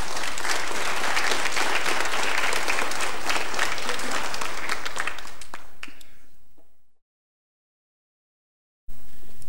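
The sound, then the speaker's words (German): An audience applauds at the end of a talk on Hegel's philosophy of right in a dense, steady wash of many clapping hands that gradually thins and fades out after about six seconds, followed by silence before another sound begins at the very end. “Applaus”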